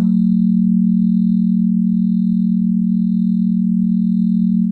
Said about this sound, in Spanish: Expusieron a los animales de mentes a escuchar en el mismo periodo de tiempo un tono de sonido de 40 hercios, que si tienen curiosidad suena así.